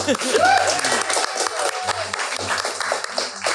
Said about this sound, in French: Une bonne main d'applaudissement pour Pomme Sauce.